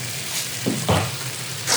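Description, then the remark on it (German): Sesame seeds sizzle and crackle as they toast in a hot pan, with a couple of brief scraping tosses of the pan partway through; the frying hiss stays steady, and no one speaks. “Okay, und da kommt jetzt noch der Sesam dann drauf mhm. und dann mhm. in die Pfanne. Okay. Ah, das schwenke ich dann einmal durch.”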